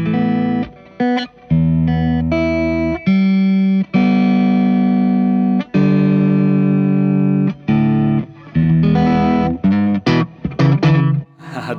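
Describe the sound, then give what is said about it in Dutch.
An electric guitar, a kind of SG Special with vintage specifications and two P90 pickups, plays loud, gritty chords and sustained notes, with a few short pauses and a busier run of choppy strums toward the end; no one talks. “ja want eh, dit is eigenlijk een soort van SG Special. Dus dat is met, met, met twee P90's.”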